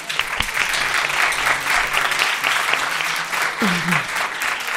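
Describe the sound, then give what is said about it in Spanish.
A studio audience applauds steadily for several seconds, a dense, even wash of clapping with no individual claps standing out, sustained at a fairly loud level throughout. “Muy bien, un aplauso para vosotros, venga.”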